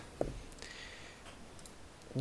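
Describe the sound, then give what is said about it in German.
A single sharp, crisp mouse click on an online digital dice roller, rolling initiative in a tabletop role-playing game. Near silence with a faint background hiss follows before a voice starts up at the very end. “Ich hätte niemals auf diesen D&D Beyond Würfel klicken sollen.”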